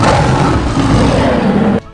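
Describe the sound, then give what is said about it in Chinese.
A thunder dragon's roar, loud and rough, with a broad rumbling growl that holds steady for almost two seconds and then cuts off abruptly. No one speaks over it. “一阵咆哮，雷龙仿佛在嘲讽水兵一般”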